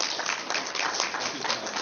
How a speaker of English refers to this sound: So again, folks, thank you so much for coming, and thank you to our panelists. Uh, if we can have a big round of applause for our panelists.